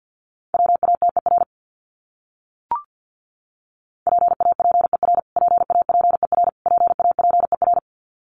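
Rapid Morse code beeps at 50 words per minute, keying words from a list of the top 500 words, a steady mid-pitched tone in fast bursts of dots and dashes, separated by a short gap and one soft click.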